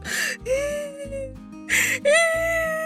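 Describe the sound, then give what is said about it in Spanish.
A voice imitates a young child crying while walking with a group carrying backpacks to a camp: two loud, wavering wails with sharp gasping onsets, each trailing into a long sobbing moan, unaccompanied by speech. “El lugar era bastante grande y de repente veo que uno empieza”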